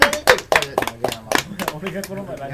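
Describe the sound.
A few people clap in a quick, steady rhythm for about a second and a half as a band introduces its bass player, while voices talk and laugh over it; the clapping then fades and the chatter continues.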